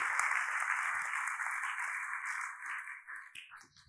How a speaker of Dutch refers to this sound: Geef God even een applaus en doe het zodat de duivel je kan horen.